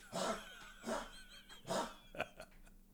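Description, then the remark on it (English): A dog barks several times in a loose rhythm, three fuller barks followed by a couple of shorter, clipped ones, heard alone and fairly quiet. “That's my dog.”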